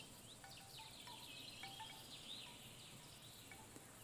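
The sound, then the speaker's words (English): Crickets chirp in a steady, dense chorus that fills the background on a farm in the afternoon, with a few faint, scattered bird chirps breaking through. The whole scene is quiet, with no voices. “She heard the crickets and the birds as the gentle afternoon breeze rustled through the leaves.”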